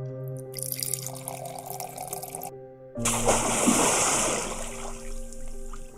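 Water pours and splashes in two steady, hissing bursts, the second fuller and louder, with a faint low hum running underneath and no talking.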